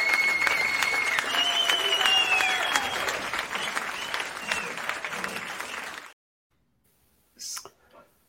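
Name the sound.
crowd applause sound effect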